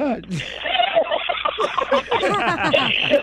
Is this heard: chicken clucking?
yes